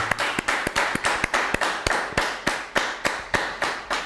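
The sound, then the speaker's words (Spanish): A crowd applauds to welcome the entrance of all the nations, with sharp, rhythmic claps landing in a steady beat, roughly three per second, over a continuous wash of scattered clapping. No one speaks. “Un fuerte aplauso. Que se escuche.”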